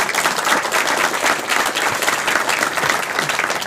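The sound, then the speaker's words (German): An audience at the Chaos Communication Congress applauds the volunteer angels, many hands clapping in a dense, continuous patter that stays fairly loud and even throughout, with no voices standing out. “Ein, ein Applaus für die Engel vom Chaos Communication Congress, bitte.”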